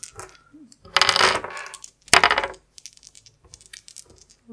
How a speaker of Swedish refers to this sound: Ni kan slå ett nytt marschslag. Kom igen. Två tärningar.